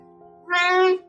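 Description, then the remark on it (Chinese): A single drawn-out meow from a cat that has just jumped up, loud and tonal with a slightly rising then steady pitch, lasting about half a second against a faint steady hum. “这个我先把它赶走了。他刚刚跳上来”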